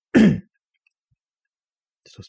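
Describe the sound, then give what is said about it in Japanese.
A single short, gravelly throat clearing, followed by a pause of near silence before faint speech starts at the very end. “たびたびあの、咳払い、これ失礼しますけども、ね。”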